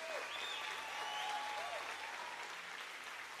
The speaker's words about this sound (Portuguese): Aplaude bem forte o nome de Jesus.